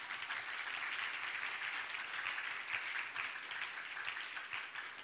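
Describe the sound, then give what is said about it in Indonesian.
Steady applause from a large crowd fills the whole clip, a dense, even wash of many hands clapping at once with no pauses and no voices standing out. “Ya jangan ragu-ragu tepuk tangan kalau mau tepuk tangan.”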